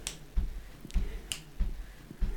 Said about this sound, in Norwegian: I vår familie så kan vi sitte eh, rundt middagsbordet. Og så begynner den ene å dunke med foten. Og så plutselig begynner nestemann bare å knipse.